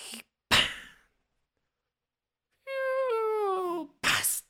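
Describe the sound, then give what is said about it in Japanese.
A voice imitates Nasu no Yoichi on horseback in the sea drawing a bow and shooting an arrow at a fan over 50 metres away: short breathy whooshes, then a long, squeaky strained tone that sags in pitch, ending in a sharp airy burst like a release. “そしたら那須の与一がこう馬でねこう海にちょっと入って弓をこうキュ”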